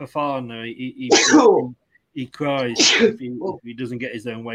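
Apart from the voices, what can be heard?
sneeze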